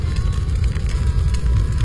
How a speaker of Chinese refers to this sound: 跑过去一看，竟然是棺材上起了火。